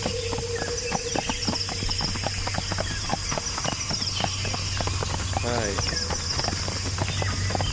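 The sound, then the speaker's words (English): A horse's hooves clip-clop in a steady, uneven patter of sharp knocks as someone tries to feed the horse, over a constant low hum, with a brief voice-like sound near the end. “No, I'm trying to feed the horse.”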